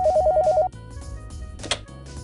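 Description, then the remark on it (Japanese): A telephone rings in a quick burst of warbling electronic pulses for under a second, then stops, with light background music continuing underneath. No one speaks. “あ、お電話です。”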